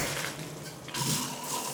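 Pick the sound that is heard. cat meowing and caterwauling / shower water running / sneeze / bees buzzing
shower water running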